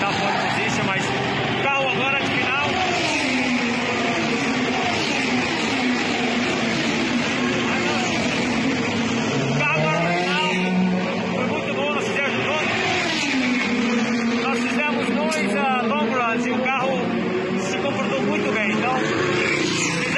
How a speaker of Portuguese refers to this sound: Então vamos ouvir o Hélio Castro Neves com barulho de carro de corrida ao fundo que a gente gosta muito.